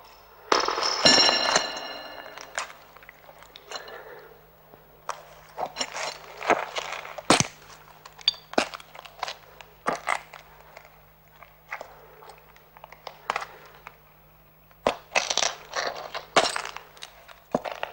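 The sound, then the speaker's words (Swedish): Crisp footsteps walk into a tunnel at an uneven pace, each step a sharp crunching tap over a low steady hum, with no voices. “Här har man alltså jobbat med, antagligen med varje fotsteg.”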